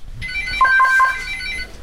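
A home telephone beside an armchair rings several times with a bright, electronic warbling tone, a quick trill of repeated notes lasting about a second and a half, clear with no voices.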